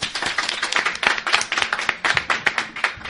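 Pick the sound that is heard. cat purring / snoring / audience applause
audience applause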